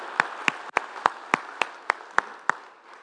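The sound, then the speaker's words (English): An audience at a morning church service claps for the Lord together in a steady, even rhythm, about ten sharp claps in unison over a soft wash of scattered clapping, with no voices heard. “Clap for the only one who deserves all our clap.”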